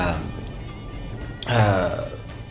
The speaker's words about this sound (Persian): ببخشید که این صدای قررش صدای قررش رعد و برقه که اینجا هوا امروز خیلی به هم ریخته و شدیدن رعد و برق طوفان خیلی شدیدیه توی آنتالیا